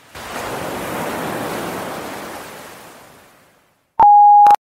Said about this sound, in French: tu, tu peux me laisser un message après le bip sonore.